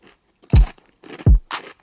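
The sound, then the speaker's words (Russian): Crunching potato chips: two loud, crisp bites about three-quarters of a second apart, each followed by brittle crackling, then a shorter bright crunch. No one speaks. “Но вообще говоря, мы все и так знаем, как звучат правильные чипсы.”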